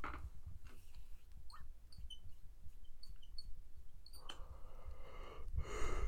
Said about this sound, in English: I'm yawning. I want to know how many times you, you yawned.